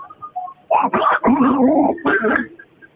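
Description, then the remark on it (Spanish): A raspy, squawking voice imitates the cartoon duck Donald Duck to send a greeting, in several quick garbled bursts, fairly loud, with no clear words. “Oye, primo, mándale saludos a Erasno, pero con el pato Donald, primo, dale.”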